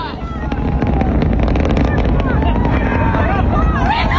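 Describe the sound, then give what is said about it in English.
A SpaceX rocket booster launch roars with a loud, steady, rumbling blast that fills the whole clip, and faint cheering voices rise and fall above the continuous thunder. “It was loud. It was also a success.”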